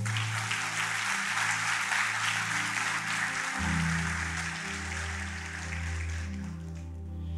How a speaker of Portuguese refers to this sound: Pode aplaudir o Senhor.